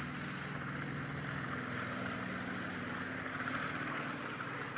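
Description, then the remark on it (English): An army helicopter taking off: a steady, loud, droning engine roar with a low humming tone underneath that holds evenly throughout, with no voices. “One Army helicopter is taking off.”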